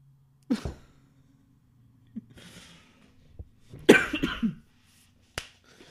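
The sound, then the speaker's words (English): A few sharp coughs come in bursts, a single hack early, then a harder cluster of two or three, with breathy rasps between and a final short cough, from someone who held their breath for too long. No talking. “I was just um coughing because um I I held my breath for too long.”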